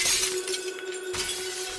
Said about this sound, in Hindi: वो गाय और वो काला कुत्ता उसकी कार के शीशों पर टूट पड़े जोर जोर से उसे तोड़ने लगे